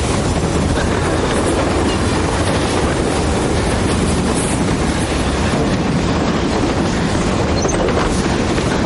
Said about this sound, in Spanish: El tren va demasiado rápido para los demás.